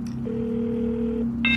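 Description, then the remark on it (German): A telephone ringing on the line as an outgoing call is placed: one steady, mid-pitched ring tone holds for about a second over a low electrical hum, then a brief, brighter electronic beep cuts in at the end. “Es läutet.”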